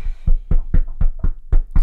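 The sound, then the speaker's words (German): A quick series of about seven dull knocks in a steady rhythm, fairly loud, each a heavy thump with no voices alongside. “Lass mal einmal kurz klopfen für Fabi.”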